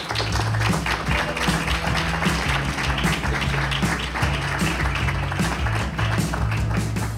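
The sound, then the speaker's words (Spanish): Sustained applause from an audience welcoming a Spanish music group at FNAC in Barcelona, a dense, steady clatter of clapping that stays loud for the whole stretch, with low music playing underneath. “un aplauso.”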